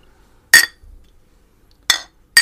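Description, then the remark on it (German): Three sharp, bright glass clinks ring out with short pauses between them, beer glasses knocked together in a toast by three people in a winter garden; nobody speaks in between. “Aber viel Bier. Und Kneipenatmosphäre. Kneipenatmosphäre haben wir sowieso, weil Prost.”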